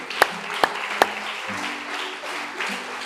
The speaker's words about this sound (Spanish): ¿Por qué no juntas sus palmas? Y así, con ese mismo entusiasmo, fuerte ese aplauso